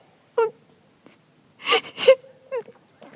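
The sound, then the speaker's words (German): A woman's voice breaks into short, tremulous wailing sobs with sharp breathy gasps between them, fairly loud, with no words spoken. “Jetzt fange ich gar zum Weinen an.”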